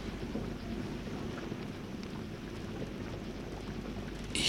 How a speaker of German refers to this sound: Die ersten Hagelkörner. Sie prasseln herunter wie gefrorener Kies.